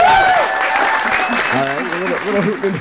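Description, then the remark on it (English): A crowd cheers and hoots loudly over steady applause, with a high whoop rising above the noise and voices calling out throughout. “who's, the, who's the hooting in there?”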